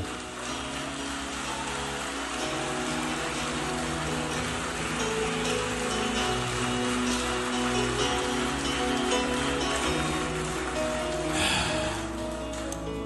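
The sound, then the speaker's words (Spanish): A large crowd applauds loudly and steadily for over ten seconds, a dense wash of clapping layered over sustained instrumental music playing underneath, clapping for God, called the King, during a Spanish-language worship service. “Fuerte, fuerte para él.”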